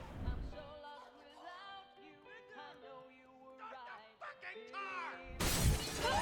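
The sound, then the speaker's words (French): A loud crash of breaking glass as a person goes through a glass window bursts in near the end, following several seconds of melodic, gliding tones. “Là, on se demande qu'est-ce qu'il va faire, bah il va passer à travers la vitre.”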